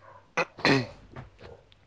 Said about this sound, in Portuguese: Puta, estão escutando os cachorros aqui? De leve. Sim. Mas podcast bom tem que ter cachorro de fundo.